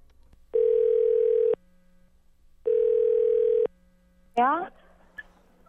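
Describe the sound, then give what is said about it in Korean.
Two steady, one-second telephone tones sound with a pause between them as a call is placed to a friend, then a short burst of noisy, rising chirps, like the line connecting. “그 친구한테 지금 전화 연결을 좀 해봐서 제 소개팅남은 과연 어떻게 잘 찾아지고 있는지 확인 전화 좀 해보도록 하겠습니다.”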